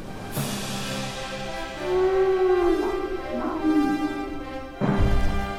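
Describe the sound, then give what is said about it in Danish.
A deep, drawn-out dinosaur roar rumbles and bellows for several seconds, its pitch sliding and wavering, before a second loud roar bursts in near the end. No one speaks. “I dette afsnit skal vi på en spændingsfyldt rejse: fra fortidens dinobrøl på dinosletten”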